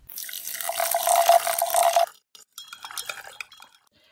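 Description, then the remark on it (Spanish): Tea streams steadily into a cup for about two seconds, its gurgling tone climbing slightly as the cup fills, followed by a few light drips and soft clinks. No one speaks. “Oye, tomémonos un té.”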